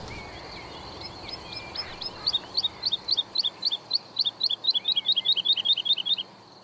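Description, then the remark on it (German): A rare bird calls at the edge of grazed meadows in a long, rapid series of high, sharp chirps that start softly and grow louder and more insistent, with faint outdoor background noise and no talking. “Die ist wirklich ein seltener Vogel.”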